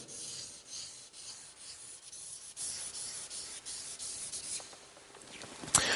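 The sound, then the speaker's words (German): A marker scratches and rubs across paper in quick back-and-forth strokes, a soft, steady hiss with brief scuffs, thickening lines; no one speaks. “Ich mache noch ein bisschen dicker, damit ihr es auch sehen könnt ordentlich.”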